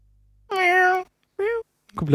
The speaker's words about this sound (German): Was ist das hier? Nein, das Katzengeräusch, oh, du Depp. Eine Endlosschleife, das ist noch ganz schlimm.